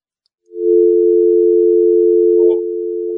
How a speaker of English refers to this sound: Not there, eh? That is the official sound of a Toledo dial tone.